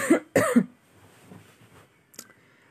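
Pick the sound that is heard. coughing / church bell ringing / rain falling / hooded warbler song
coughing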